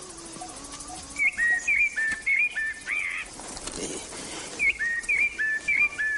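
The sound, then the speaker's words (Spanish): A small bird sings in short, bright, high-pitched whistled phrases, repeated in two bursts with a brief pause between, over a faint background hiss and a quick murmured voice. “qué bonito el pajarico.”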